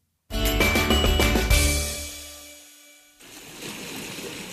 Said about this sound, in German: Vielleicht habt ihr es gerade im Hintergrund so ein bisschen gehört. Es war Meeresrauschen.